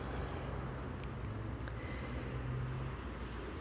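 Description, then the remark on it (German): A steady, low rumble of cars on a motor road (Kraftfahrstraße), a continuous wash of car noise without any single vehicle standing out, and no voices. “Und deswegen werdet ihr die Autos hören, aber vielleicht ist das ja mit dem neuen Aufnahmegerät ganz gut reduziert.”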